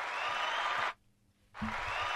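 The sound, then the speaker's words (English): A burst of dense crowd applause, cut off abruptly into silence for about half a second, then starting up again just as loud, like a canned sound effect. “I love your applause.”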